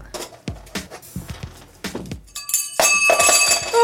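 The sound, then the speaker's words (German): Brittle glassy hard drive platters are thrown and shatter on a hard floor, a series of sharp cracking impacts followed by a dense burst of bright, ringing tinkling fragments that grows louder toward the end. “Ähm, das sind Scheiben aus einer Festplatte. Smash. Ja, weg damit. Die machen so schöne Geräusche, das machen wir gerade nochmal.”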